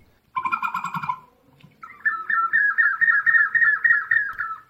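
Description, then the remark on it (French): Terracotta pots of different shapes, more or less filled with water, are moved by a man so the moving water makes a modulated whistle like a songbird: a short bubbly warble, a brief pause, then a longer rapid trilling run, fairly loud, with no voices. “Oui, oui, oui, des pots de différentes formes, plus ou moins remplis d'eau, et quand le gars bouge le pot, le mouvement de l'eau produit ce sifflement modulé”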